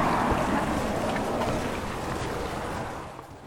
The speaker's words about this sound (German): Wir stehen im Bootssteg. Hinter uns ist der Highway, den hört man auch.